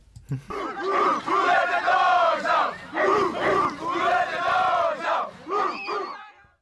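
A high school football team from Michigan shouts a rhythmic team chant from 1990 in unison, loud young male voices with repeated bursts separated by short pauses, used as a team and fan chant.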